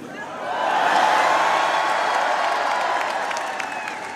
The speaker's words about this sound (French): Celle-ci l'acclame, agite des drapeaux français et européens.